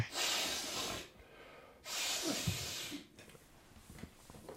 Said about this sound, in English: I'll face away from the camera and do a big. I'll get, I'll get like 15 minutes out of this sniff.